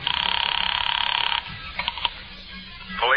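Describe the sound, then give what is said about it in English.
A telephone bell rings with a loud, rapid metallic trill for over a second, then stops, followed by a few quiet clicks like a dial turning and a brief rising tone at the end, during a five-cent phone call to police headquarters. “Expense account item four, five cents, phone call.”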